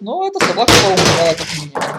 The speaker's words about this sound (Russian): Это был грохот от упавшей на пол гигантской игрушки.